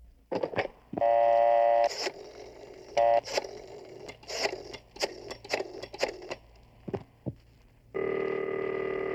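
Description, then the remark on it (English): A telephone is dialed, with steady electronic tones broken by a quick run of clicks and beeps, then a loud sustained ringing tone takes over at the end. No one speaks. “Give him his one phone call.”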